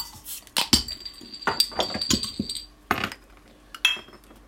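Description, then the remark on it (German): Several beer glasses clink together in a toast, a flurry of bright overlapping knocks and chimes over about three seconds, then a couple more taps, fairly loud. “Prost, Jungs. Prost.”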